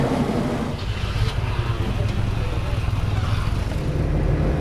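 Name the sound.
cars idling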